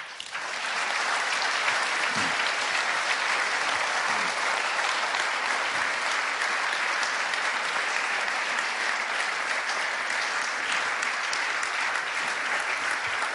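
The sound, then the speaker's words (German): Sustained audience applause, a dense steady wash of many hands clapping at an even loudness for over thirteen seconds, with no voices standing out. “Toller Applaus, vielen Dank.”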